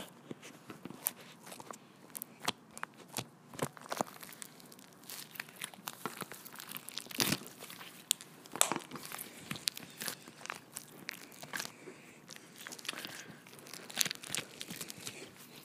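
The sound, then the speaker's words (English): Repeated poking of holes into stiff, hard, oily slime produces a run of sharp crackling and crunchy tearing pops, irregular and fairly quiet, with no talking. “Um, but I'm gonna poke holes in it and let you hear that.”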